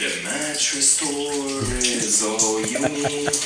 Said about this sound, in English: You can even hear the water.